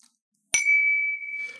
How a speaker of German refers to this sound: Wir stoßen an auf 50 Folgen Hörgeld. Prost.